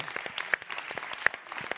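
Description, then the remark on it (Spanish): A short burst of applause: dense, steady clapping with a few sharper, louder claps standing out, no voices. “Un aplauso.”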